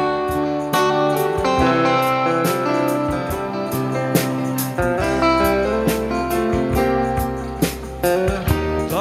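Instrumental music plays steadily and fairly loud, with sustained chords and a low bass line punctuated by regular percussive hits; no voices are heard.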